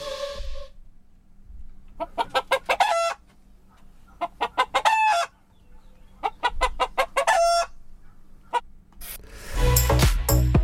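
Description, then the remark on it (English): A chicken or hen clucks in repeated bursts of quick, throaty calls, each run rising to a squawk, with no talking, and a rustling rub noise at the very end. “It was a chicken or a hen.”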